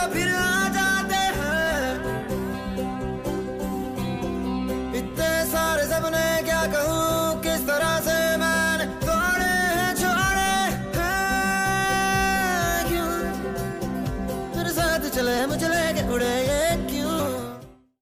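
A Hindi film song plays loud and steady, a full, dense musical mix with flowing melodic lines throughout, before cutting off in a quick fade at the end.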